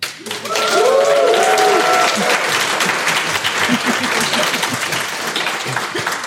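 A live audience at a recording breaks into loud, dense applause that holds steady for about six seconds, with a few whoops or whistles rising over the clapping near the start.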